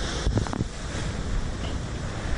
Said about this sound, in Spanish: El mar se desbordó debido al paso del huracán Iota que provoca mar de leva en el Caribe colombiano. Lo que estamos viendo en el momento en Cartagena y en el litoral caribe colombiano es lo que se conoce como un mar de fondo.